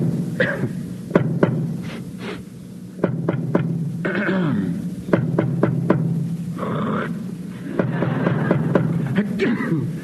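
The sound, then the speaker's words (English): Short, sharp coughs and throaty hacks come in irregular clusters, used as a code to spell out letters and communicate, over a steady low background hum with no talking. “so you could cough and hack and sputter and spit all day long and really communicate, and they never got wise to that.”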